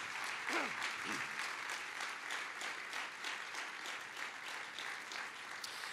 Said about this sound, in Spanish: Fuertes de aplauso de alabanza al Señor.